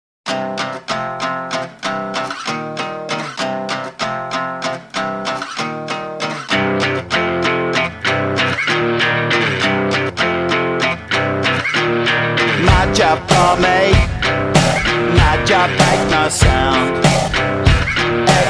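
A rock track in an uneven five-beat meter opens on choppy, repeated guitar chords, then bass joins and a full, louder band with drums kicks in. No voices are heard.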